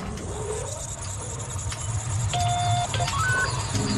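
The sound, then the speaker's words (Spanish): A spaceship takeoff sound effect: a steady, loud low rumble carries throughout while short electronic beeps and rising whistling tones chirp over it in the second half. No voices are heard. “Prepárate, que empezamos con nuestro despegue.”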